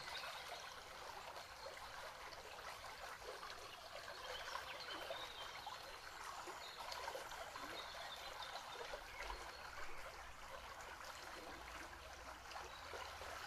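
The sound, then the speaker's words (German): A steady, gentle trickle of stream water runs continuously, a soft bubbling wash with no pauses, even in volume throughout. “Und dieses Wasser fließt auf mehr auf deine Ebenen.”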